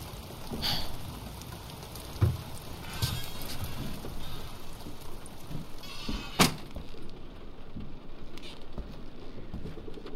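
Steady rain patters at night in woods by a lone cabin with no lights on, a continuous wash of noise broken by a few sharper, louder drips or taps, with no voices present.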